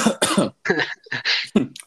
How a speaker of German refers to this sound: also, kurzer Huster. passiert also, mal.